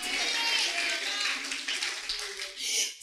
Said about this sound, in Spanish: ¿Usted está de acuerdo conmigo? Dele un aplauso al Señor, por favor.